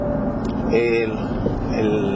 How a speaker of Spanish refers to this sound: si ustedes no me escuchan claramente bien es porque usted está oyendo el ruido del carro, es que yo estoy manejando ahora mismo.